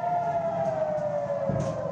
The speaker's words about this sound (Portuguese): O alarme soa.